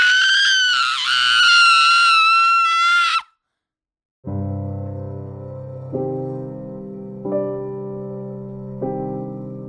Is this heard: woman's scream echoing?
yes